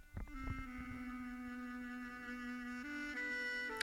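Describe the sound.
A voice hums a slow, mournful tune alone, holding one long low note before stepping up to higher notes near the end, steady and fairly loud.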